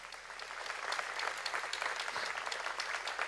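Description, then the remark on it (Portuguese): A church audience breaks into sustained applause for Jesus, dense overlapping claps filling the whole stretch at a steady, fairly loud level with no voices standing out. “É nessa hora que eu acho que Jesus merece uma grande salva de palmas, queridos.”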